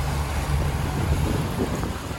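A boat's steady low engine rumble as it leaves the harbor of Bol on an island early in the morning, with wind buffeting the microphone and a continuous wash of water noise throughout; no one speaks.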